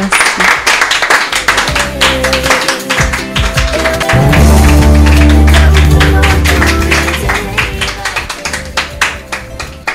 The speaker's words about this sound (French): On peut applaudir notre ami.